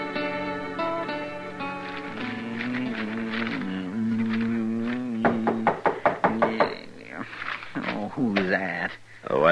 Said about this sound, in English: I never heard of nobody knocking on this door before.